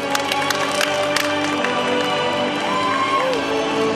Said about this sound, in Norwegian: Folk jubler. Dette er ekte amerikansk film? Hæ? Ja, det var voldsomt. Ja, ja. Eller? Jeg har aldri vært med på noe sånt før at folk jubler på film. Men dette var jo virkelig patriotisk.